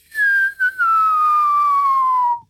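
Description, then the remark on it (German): A loud, steady whistle of a huge glowing lava rock flying in, its pitch sliding slowly downward for about two seconds after a couple of quick stutters at the start, then cutting off abruptly. “Ich höre ein Pfeifen in der Luft?”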